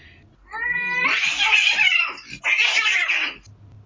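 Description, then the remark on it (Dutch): An angry female cat lets out two long, loud, harsh yowls as she jumps on top of another cat. The first rises with a strained, harmonic wail and the second follows after a brief gap, sounding agitated and hostile. “Maar soms dan is kwaad en dan springt ze bovenop en dan schrikt hij zich helemaal dood.”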